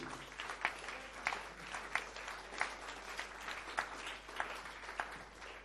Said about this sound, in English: The clapping is free.